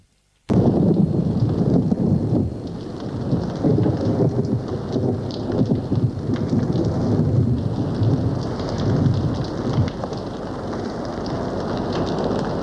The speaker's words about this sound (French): Il pleut à verse. Il tonne.